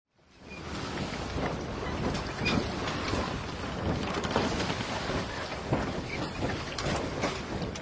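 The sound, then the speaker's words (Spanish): Stormy sea ambience aboard a whaling ship rocking in the Pacific Ocean: steady roaring wind and rushing water with creaks and thuds of the rocking hull, continuous and fairly loud, with no voices. “Estamos en un buque ballenero, balanceándonos, balanceándonos acá por medio del Océano Pacífico.”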